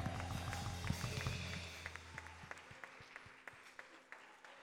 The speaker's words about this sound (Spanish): fuertes las palmas para el rey.